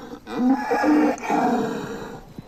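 A cow moos in a long, drawn-out low call lasting about two seconds, loud, with a slight waver in pitch and no talking over it.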